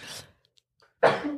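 A single sneeze: a breathy, noisy intake, a short pause, then a sudden loud explosive burst that trails off. No one speaks.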